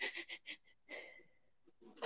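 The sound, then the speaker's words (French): A voice imitates jerky, breathless anxious breathing: three quick, shaky inhales in a row, then a longer drawn-out breath that fades, and a sharp gasp at the end. Fairly quiet. “Quand ça respire saccadé comme ça”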